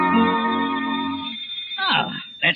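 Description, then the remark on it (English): A doorbell rings as a lawyer arrives at the door, with a single sustained, buzzy tone lasting just over a second, then fades out as a voice starts speaking. “Probably the lawyer now. I'll answer the door.”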